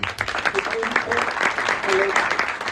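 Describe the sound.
An audience applauds steadily, a dense wash of many hands clapping at once, with a few faint voices and brief tonal calls poking through the clatter.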